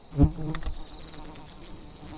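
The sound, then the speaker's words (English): Flies and wasps buzz steadily, a thin continuous drone that hums on throughout, with a short low thump near the very start and no voices. “Small ones like ants, flies, wasps, and beetles?”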